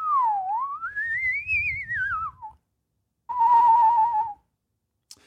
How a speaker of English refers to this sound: I can whistle real good. I'm real good with my mouth and tongue.